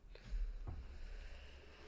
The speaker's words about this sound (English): Anyway, sorry, I, I, sorry, I was taking a victory sip.